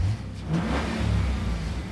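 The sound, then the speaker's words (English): A silver Mustang's engine revs loudly as it drives by in downtown Portland, its low rumble rising and surging steadily as the car passes, with no voices present. “A car drove by a silver Mustang. The Mustang slowed down.”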